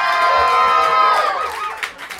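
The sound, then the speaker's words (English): A live crowd at the Fantastic Fiction at KGB reading series in New York City whoops and cheers loudly, many high voices shouting together over about two seconds, with a few scattered claps as the noise starts to fade. “We need a little bit more of an enthusiastic applause.”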